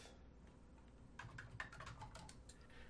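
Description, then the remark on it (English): Soft, rapid clicking of someone typing on a computer keyboard, writing up an issue about documentation on analog reference voltage; a quick irregular burst of keystrokes that starts after a quiet moment and trails off, with no one speaking. “You'll have to give me a second to get the notes back up because I was just uh, typing in the issue that I didn't on the weekend about our documentation hmm.”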